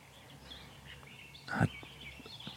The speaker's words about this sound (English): turtle doves pairing around us.